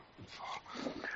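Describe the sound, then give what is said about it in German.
A dog makes a short burst of breathy vocal sounds, a mix of whines and snuffles lasting about a second, with no talking. “Dies, das ist ein Hund.”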